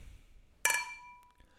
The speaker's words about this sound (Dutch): En wij sluiten natuurlijk af met onze bekende... Klinken.